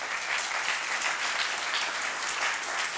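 An audience applauding its worship team for leading worship, a dense, continuous wash of clapping that holds at the same level throughout without any voices rising above it.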